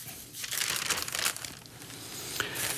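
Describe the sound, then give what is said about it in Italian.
Continuous rustling and crinkling of paper as newspaper pages are leafed through while someone searches for a particular page, with brief louder crackles as sheets are turned. No voices. “ma la devo trovare, eccola qui, la stampa, la stampa fa una pagina, un paginone bellissimo”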